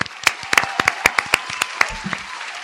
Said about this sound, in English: Let me give you a round of applause